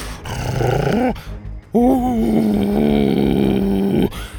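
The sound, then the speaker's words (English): A person voices a low, menacing growl: a short rumbling burst, a brief pause, then a longer, louder, sustained growl that wavers before cutting off. Fairly loud, with no other talk. “His low growl now sounded psychotic.”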